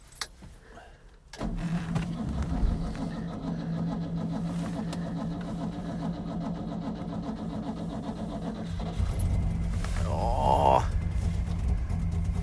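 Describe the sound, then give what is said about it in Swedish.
A cold car engine, left outside overnight at minus 20 degrees, cranks with the choke pulled out and catches after a short quiet start, then settles into a steady, rough idle with a low throbbing hum; near the end it revs briefly and grows louder. “Eh, och nu har bilen stått ute i natt. Det är minus 20 grader. Eh, vi ska se om den startar.”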